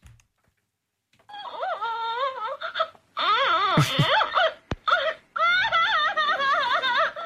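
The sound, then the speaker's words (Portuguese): A recorded cry from a toy baby doll plays in wavering, high-pitched wails and whimpers, broken into several bursts with short gaps, fairly loud, with a slightly electronic, looping quality. “argumentam que o choro da boneca, os supostos sons de BBS”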